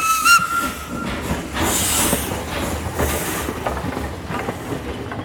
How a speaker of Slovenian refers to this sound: Vlak je speljal in vozil mimo domačih krajev.